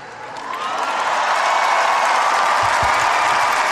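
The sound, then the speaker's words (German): A large crowd of young people in Lisbon, addressed by Pope Francis, roars and cheers, a dense, sustained wash of voices and applause that swells in over the first half second and then holds steady and loud, with no single voice standing out. “Und vergesst nicht, weiter die Wellen zu reiten, sagt Papst Franziskus noch zu den jubelnden Jugendlichen hier in Lissabon.”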